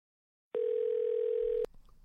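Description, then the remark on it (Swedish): A single steady telephone ringback tone sounds for about a second, clear and fairly loud, then cuts off with a click as the line connects and faint background noise follows. “jag tänker vi, vi ringer honom och hör lite”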